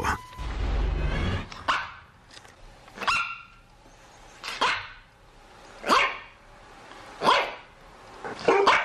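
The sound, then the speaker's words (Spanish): A dog barks repeatedly in sharp, separate bursts spaced about a second or so apart, loud, with no one speaking. “Nuestra historia sonora de hoy, ya les decía, tiene que ver con perros y algo que pasó en, em, en Nueva Zelanda.”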